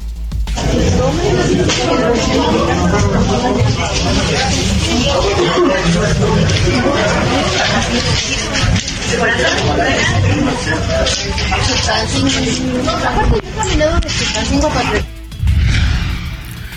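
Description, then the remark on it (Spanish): A dense crowd of voices, overlapping chatter and shuffling movement running continuously as passengers are evacuated from several stalled metro trains on Line 9 between Lázaro Cárdenas and Tacubaya stations after an electrical failure, with a brief quieter gap near the end before the babble resumes. “el tramo entre las estaciones Lázaro Cárdenas y Tacubaya de la línea 9 permaneció fuera de servicio durante casi una hora, lo que obligó al desalojo de pasajeros de varios de los trenes y así se escuchó el desalojo en el metro.”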